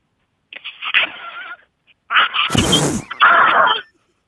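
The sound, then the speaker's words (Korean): A person imitates the call of a crow from the Beommul-dong neighbourhood with harsh, raspy caw-like calls: one drawn-out call, a brief pause, then a longer, louder burst with a rough, breathy rasp in the middle, alone. “범, 음, 범물똥 까마귀는 보통 까마귀는 까악 하고 울잖아요.”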